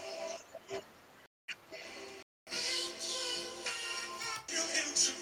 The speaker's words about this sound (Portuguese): Ei, esta música está mesmo psicadélica.